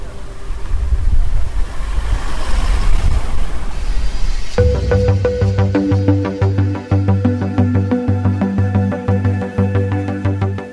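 Open-air ambience of the main town square, Praça Matriz, of Serrana, Brazil, a farming municipality surrounded by sugarcane plantations about 315 km from São Paulo: a broad, breezy outdoor rush, then after a few seconds music with a steady beat starts playing over it.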